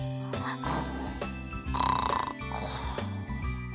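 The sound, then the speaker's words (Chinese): A man asleep on the lower bunk of a bunk bed at night snores loudly in a series of low, rasping, buzzy bursts with a regular rhythm, each breath rising and falling, and no talking. “大头儿子只好把老丁叔叔的呼噜声当做故事听，可他听着听着，忽然很想把这呼噜声改一下，改的好听一点。”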